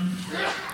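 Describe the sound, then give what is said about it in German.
A single quick, sharp sneeze bursts out right at the end, briefly louder than the low murmuring voice that fills the rest of the moment. “Gesundheit. Gesundheit.”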